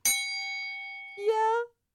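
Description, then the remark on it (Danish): A single bright ding from a small bell, a context bell being rung, rings out and slowly fades, then a short voiced exclamation follows as the tone dies away. “Ringer du lige med kontekstklokken?”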